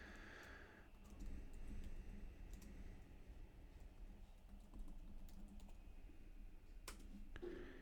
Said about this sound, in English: you can see how uh, slow my typing is.